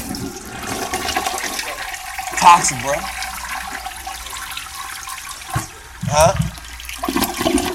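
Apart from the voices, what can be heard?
toilet being flushed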